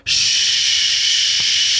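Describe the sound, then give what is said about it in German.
A voice imitates the steady hiss of a Studer tape machine with a loud, sustained "shhh" that starts abruptly and holds evenly for nearly two seconds, with no other sounds. “und denkst, Mann, wo kommt denn dieses Rauschen her?”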